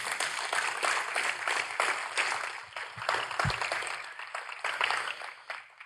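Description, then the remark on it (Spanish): A crowd applauds steadily for about six seconds, a dense, even crackle of many hands clapping at once, with no voices over it and a slight thinning toward the end. “Démosle un aplauso a eso.”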